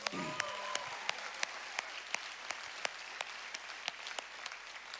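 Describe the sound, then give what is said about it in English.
An audience applauds for the baptisms steadily for several seconds, with many hands clapping together and sharp individual claps standing out. The clapping is fairly even throughout. “Could we have a hand clap for all the baptisms again?”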